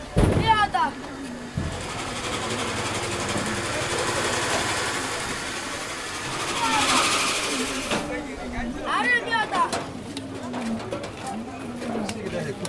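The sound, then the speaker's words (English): An electric grain mill at a market, used by women to grind flour, drones steadily, a continuous motor hum with a rushing, grinding hiss, while birds chirp and coo and indistinct voices murmur in the busy background. “We are approaching an electric mill. You can always find some in the markets.”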